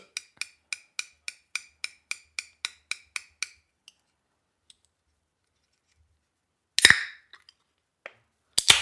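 A quick, even run of about a dozen metallic taps on a small 0.3-litre beer can, a pause, then the sharp crack and fizzy hiss of its tab popping open, with another burst at the end.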